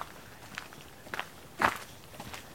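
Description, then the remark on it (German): Footsteps crunch through dense, jungle-like undergrowth on a narrow trampled forest path behind a house. Several soft, uneven steps come with rustling vegetation, one louder step near the middle, fairly quiet, with no talking. “Also hier ist jetzt schon richtig ein bisschen Dschungel, ne? Ja. Das ist ein richtiger Trampelpfad hier.”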